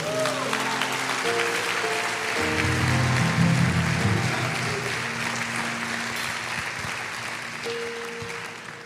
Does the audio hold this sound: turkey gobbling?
no